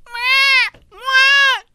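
Two loud, drawn-out wails of a baby crying, separated by a short gap, with no one talking.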